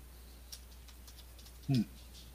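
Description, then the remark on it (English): A steady, low electrical buzz in the audio of a voice call runs underneath the whole recording, with a few faint ticks and a short, louder warbling burst near the end. “Uh oh, there's buzzing.”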